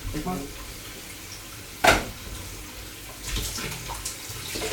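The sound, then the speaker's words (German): Water pours and splashes into a sink in a short, sharp gush as cooked cabbage is drained from a pot, followed by steady running and trickling, with a brief clatter of the pot. “hat jetzt den Rosenkugel abgegossen.”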